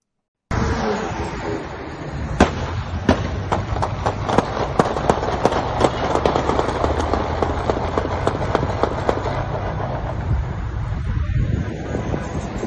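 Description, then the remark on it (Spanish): Rapid, irregular rifle gunshots from a long gun ring out at the end of a shootout with police, well over a dozen sharp cracks in a volley over a steady, wind-like roar of background noise. “es un sonido de rifle y sí, es un arma larga, definitivamente”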